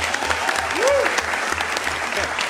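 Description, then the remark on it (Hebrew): Steady applause from a crowd as Economy Minister Orna Barbivai remarks that four women ministers sitting together to discuss climate is not to be taken for granted: a dense wash of clapping that holds at a fairly even level throughout, with a brief rising-and-falling tone and some low background murmur mixed in. “אז אנחנו שומעים את מחיאות הכפיים, שעה שאורנה ברביבאי אומרת, זה לא דבר מובן מאליו שיושבות פה ארבע שרות, בוא ניתן רגע לרגע הזה לחלחל.”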